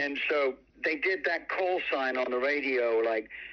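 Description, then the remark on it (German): A short Radio Luxemburg (208) station jingle sung in a buzzy, robotic voice made with an early talkbox precursor, choppy syllables giving way to a longer gliding phrase, loud over a faint low hum. “Dazu gab es einen Jingle, der folglich andauernd im Radio lief.”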